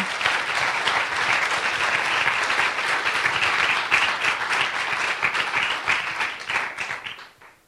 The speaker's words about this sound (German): Das ist echt ein Applaus wert.